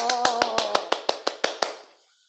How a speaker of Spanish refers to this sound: ¡Un gran aplauso!